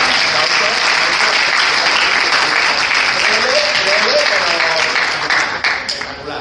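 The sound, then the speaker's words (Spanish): An audience at a short-film event claps for a video presentation, steady, dense, loud applause that holds for several seconds before thinning out toward the end, with faint voices blended in. “Un aplauso para el vídeo presentación, por favor.”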